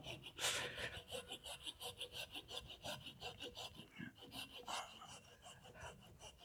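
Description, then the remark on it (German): A Japanese pull saw cuts through wood in quick, steady rasping strokes, fairly loud, with a brief pause partway through before the sawing resumes. No one speaks. “Also wenn ich, wenn ich damit säge, da geht was.”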